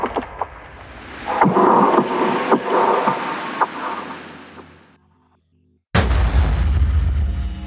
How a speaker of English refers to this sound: Loading Bay D just exploded. Explosions are now cascading through the station.